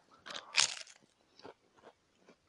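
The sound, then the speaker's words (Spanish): Loud crunching of crisp food being bitten and chewed, a sharp burst early on followed by a few softer, spaced crunches with no talking. “Y estoy tragando.”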